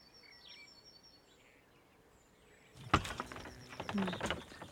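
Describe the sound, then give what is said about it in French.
Faint birds chirp in a quiet outdoor setting, then a door with a mosquito screen is pulled open with a sudden rattling clatter and creaking that continues for a couple of seconds. “Une jolie porte avec une moustiquaire, moustiquaire ça, c'est dedans.”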